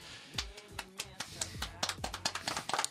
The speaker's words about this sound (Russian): Мы тут хлопаем, да. Ты должен танцевать, пока мы хлопаем.